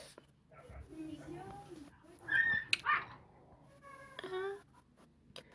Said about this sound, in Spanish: ¿Por qué mis perros pelean? Tus perros están se están matando. Tus perros se están matando.